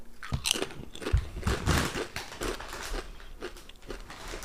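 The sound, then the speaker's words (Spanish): Loud crunching of a Doritos tortilla chip being bitten and chewed, with a series of sharp irregular crackles over several seconds and no talking. “Estaréis escuchando seguramente un crunch.”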